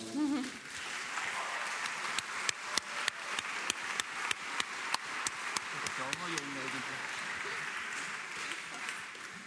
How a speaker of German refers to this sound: Gebt ihnen doch kurz einen Applaus.